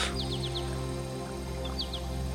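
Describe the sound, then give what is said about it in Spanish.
Birds chirp in short, quick high tweets, a run of four followed by a couple more, fairly soft over a steady low ambient drone. “Puedes escuchar el sonido del agua los pájaros.”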